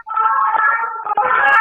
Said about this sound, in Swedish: Jag har hört är det den spanska polisen? Är det den spanska polisen? Låter den så komisk? Ja, det var faktiskt det var en ambulans som körde förbi. Man blir ju för fan glad när man hör det ljudet. Du-di-du, du-di-du.